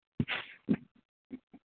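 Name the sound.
sneeze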